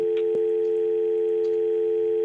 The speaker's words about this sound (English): It's it's a joke. It's, it's a, not a real dial tone. Yeah, it's yeah. just a fake dial tone. Fake.